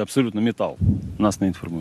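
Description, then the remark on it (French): A single deep, muffled boom from a CAESAR howitzer firing a single shell, heard once in the middle of ongoing talk and rolling briefly before the voices continue. “une seule sortie, un seul obus tiré, contre les 6 en une minute qui sont pourtant sa marque de fabrique”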